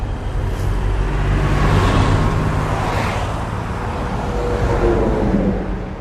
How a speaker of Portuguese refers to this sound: Na avenida, o fluxo de carros é intenso.